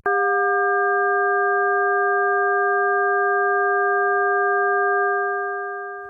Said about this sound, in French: Et maintenant, un son inharmonique à 400 Hz, puis 720, 1200 et 1600